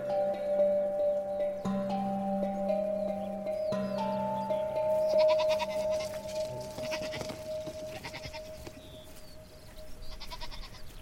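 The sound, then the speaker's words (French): A herd of 120 goats bleats repeatedly, overlapping cries from several animals, with no one speaking. “Après la récolte des olives, on m'a chargé de garder un troupeau de 120 chèvres.”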